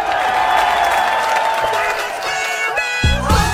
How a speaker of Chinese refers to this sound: Ladies and 乡亲们，让我们用热烈的掌声欢迎豆瓣儿闪亮登场。